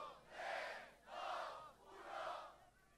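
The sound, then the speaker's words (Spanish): A crowd cheers and roars in three loud, swelling waves, each rising and fading over about a second, with broad noisy applause and shouting throughout and no single voice standing out. “Más fuertes ¡aplauso al paraíso. Más fuerte.”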